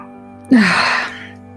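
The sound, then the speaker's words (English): A dog lets out one short, upset whimper, a brief falling whine mixed with a breathy huff, fairly clear over a quiet background hum. “My dog is even upset. L- listen to this upset.”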